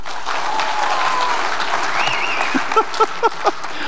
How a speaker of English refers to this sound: Does true forgiveness require we forget? Does true forgiveness require? Great clap if you think it's a yes.